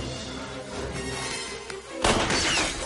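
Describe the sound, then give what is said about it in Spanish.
The glass of a clinic consulting-room window shatters as Tao jumps through it, a sudden bright, crashing burst about two seconds in, following a low rumbling background, and the scattering, tinkling debris carries on to the end. “Tao salta por la ventana de la consulta y rueda por el suelo.”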